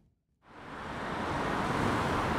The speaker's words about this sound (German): Es ist morgen am 11 Uhr, also überhaupt nicht Stoßzeit. Und gleich rauscht ein Auto ums andere durchs Dorf Netzel.